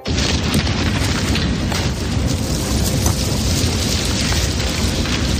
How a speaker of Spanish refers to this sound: Es el sonido de los incendios que de nuevo este verano han pintado de negro paisajes donde antes rebosaba el verde.